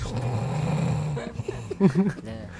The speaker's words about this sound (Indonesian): ya gue cepet ngorok cepet ngorok